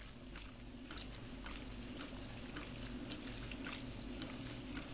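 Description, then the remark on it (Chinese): Steady rushing water fills a front-loading washing machine, a continuous low hum beneath with faint irregular splashes and clicks on top, no one speaking. “短暂却长如一个世纪的停顿过后，滚筒洗衣机开始了运作。”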